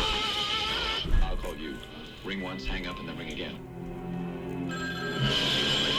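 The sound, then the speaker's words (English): A telephone rings with a steady, bright electronic tone over a busy movie-trailer soundtrack, with voices speaking and dramatic background sound throughout. “Eating a brownie, getting blown up by the phone.”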